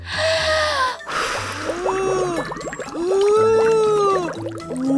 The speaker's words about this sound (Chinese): 鳄鱼米米深吸一口气，对着星星形状的泡泡吹棒，吹了一口长长长的气。